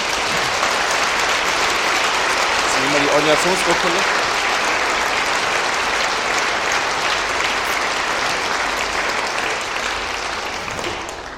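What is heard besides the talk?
audience applause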